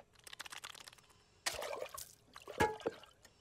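Water trickles and splashes, then pours steadily for about a second, followed by a couple of sharp gulping sounds of someone drinking. No one speaks.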